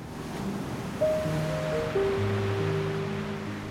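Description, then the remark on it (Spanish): Ocean waves roar steadily in a dense, continuous wash of surf, with sustained low musical tones droning beneath and no voices present. “en la tierra las naciones se llenarán de angustia y de miedo por el estruendo de las olas del mar.”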